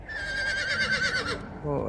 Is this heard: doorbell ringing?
no